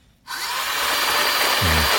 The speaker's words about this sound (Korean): 얼음 같은 거 넣고 과일 넣고 믹서에 돌리는 소리입니다. 믹서기 소리예요.